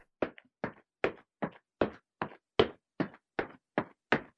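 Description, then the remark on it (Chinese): Quick, hurried footsteps inside a crowded perfume museum, about ten sharp thudding steps in a steady, fast rhythm with no voices. “汪汪侦探还是可以听到前方传来急促的脚步声。”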